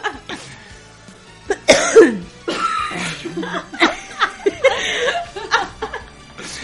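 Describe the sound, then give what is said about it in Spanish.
Several people cough in quick bursts, fairly loud, with some chuckling and laughter mixed in between the coughs. No clear speech. “Es que estamos tosiendo al uno, tosiendo el otro.”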